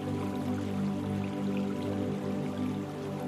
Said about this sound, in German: Am Ende des Bambushain führt eine kleine hölzerne Brücke über einen kleinen Bach. Farbenfrohe Kois bahnen sich ihren Weg durch das kleine Gewässer.